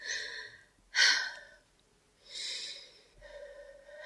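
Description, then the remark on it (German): A man snores while asleep in a bedroom, in slow, rasping breaths, three drawn-out snorts rising and falling with pauses between, fairly quiet with no talking. “Als er zu schnarchen anfing, habe ich Fenster und Türen des Schlafzimmers fest verschlossen, damit ihn niemand hört.”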